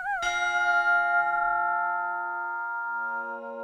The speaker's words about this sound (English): these sources meld into a composite texture that oscillates between what Harvey describes as, quote, a bell of boys and a boy of bells